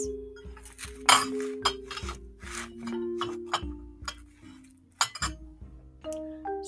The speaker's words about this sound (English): She washes the dishes.